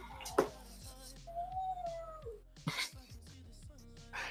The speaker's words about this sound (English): Your dog doesn't like you. We can all hear him.